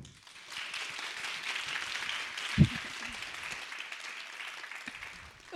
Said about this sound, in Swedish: Vi välkomnar dem med en varm applåd.